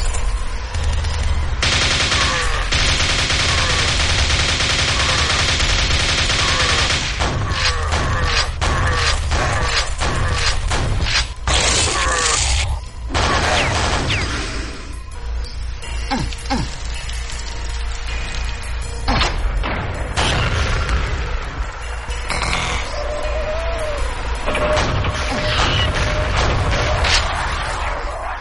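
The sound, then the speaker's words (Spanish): Loud video game gunfire and explosions from gameplay on a PlayStation 4 Pro: rapid bursts of automatic fire and sharp volleys pile onto heavy, rumbling booms, keeping a dense, chaotic barrage going almost without a break and with no talking. “vamos a dar un montón de muestra de lo que se escucha cuando se juega con la Play 4 Pro.”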